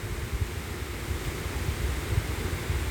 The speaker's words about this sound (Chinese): 大家可能听得出来，现在正在下雨，雨声其实听起来都很像。那教大家一个面对下雨的小撇步，我们先仔细听雨声。